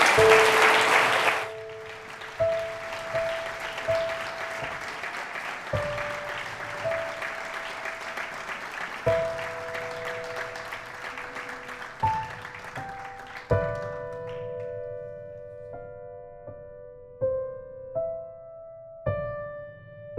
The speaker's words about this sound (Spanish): Sin más, les pido que reciban con un caluroso aplauso a Penelope Curtis. Gracias.